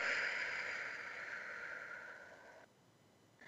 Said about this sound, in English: And as you're doing that and you're taking a deep breath in, through the nose and then out through the mouth like you're breathing through a straw.